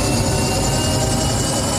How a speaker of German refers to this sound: Man hört jetzt schön, wie die Turbine hochläuft, bis zur Eiteldrehzahl.